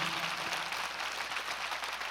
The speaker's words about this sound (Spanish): Un aplauso para los médicos, por favor